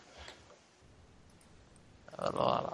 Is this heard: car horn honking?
no